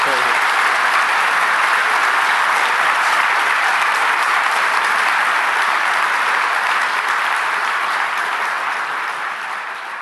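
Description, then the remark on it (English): A large audience at a seminar claps steadily for about ten seconds in thanks to speaker Bill Galston, a dense, loud wash of applause that stays full throughout and only begins to ease slightly at the very end. “And I want to thank, and I hope everyone now gives a big thanks to Bill Galston for an excellent.”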